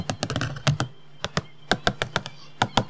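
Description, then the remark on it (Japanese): A pencil scratches and taps hard on a single sheet of paper on a neighbouring desk as someone writes during an exam, making an irregular rapid clatter of sharp knocks, with no voices. “あの、なんすか、あの、ペンの、走る音、隣の机で、こう、鉛筆を机の上に紙一枚、机の上で鉛筆書くと、”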